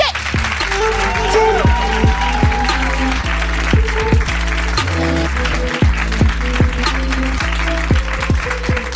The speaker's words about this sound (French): De toute façon, sortir d'une pièce avec les gens qui t'applaudissent, j'ai envie de te dire, c'est quand même sympa.